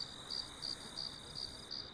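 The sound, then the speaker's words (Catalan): Crickets in the fields around a farmhouse chirp in a steady, rhythmic pulse, repeating about every third of a second, forming a continuous high-pitched trill with no voices present. “Al voltant del mas s'estenien els camps que cobejava l'orquestra de grills.”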